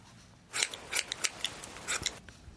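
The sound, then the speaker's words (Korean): Scissors snip repeatedly, a quick series of crisp metallic cuts in an irregular rhythm, fairly loud, with no talking; used as a hidden quiz sound effect on a KBS radio show. “가위질 소리입니다.”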